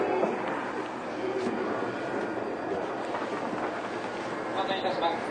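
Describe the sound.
A Tokyo Waterfront Area Rapid Transit 70-000 series electric commuter train, running between Shinjuku and Shin-Kiba, rumbles steadily along the rails, a continuous loud whir and clatter that stays even throughout, with faint voices murmuring beneath the noise.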